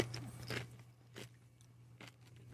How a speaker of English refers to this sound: your your that's your good chewing audio. We gotta we gotta save that for a future.